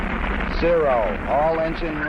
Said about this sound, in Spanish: Todos los motores andando. Tenemos el despegue